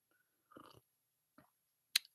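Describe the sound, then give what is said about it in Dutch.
A quiet sip of a drink: a short slurping swallow, a faint mouth sound, then a single sharp click, with no one talking. “We gaan even een slokje nemen, jongens.”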